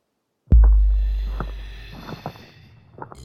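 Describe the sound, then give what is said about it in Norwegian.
A deep, heavy thud lands suddenly and loud, its low rumble fading slowly over a couple of seconds while fainter knocks follow: the heavy, powerful footsteps of a gigantic troll walking and approaching, making the ground tremble. “hører de noen tunge, kraftige steg komme mot seg”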